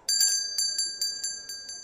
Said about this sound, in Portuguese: você entra na porta de vidro. Quando você abre, um sino toca em cima da sua cabeça.